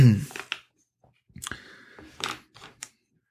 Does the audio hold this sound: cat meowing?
no